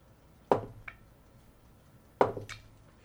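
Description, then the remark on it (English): A voice imitates a spider's threatening, hiss-like clicking, heard as coming from up above: two pairs of sharp clicks, each a loud snap followed quickly by a softer one, separated by a long pause. “Uh, you guys uh, get a nasty feeling as you hear clicking, like that, like threatening kind of like hissing sound now coming from up above you.”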